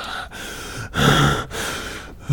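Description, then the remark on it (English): A voice imitates a man heavily panting after climbing a flight of stairs, with several loud, breathy in-and-out gasps in a quick, uneven rhythm and no talking. “And uh, after each flight, he just stands there and just is panting like.”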